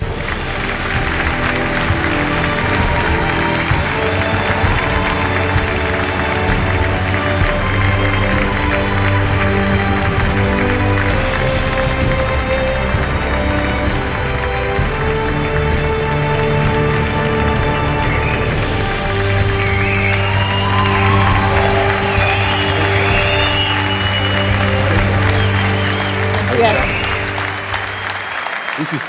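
A large FC Barcelona football stadium crowd applauds and cheers without pause for the whole stretch, a dense, loud roar of clapping and voices with sustained chanting tones running underneath.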